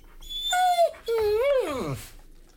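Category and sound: animal, dog whimpering and panting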